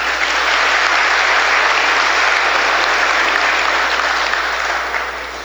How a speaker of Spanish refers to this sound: Démosle un fuerte aplauso, por favor.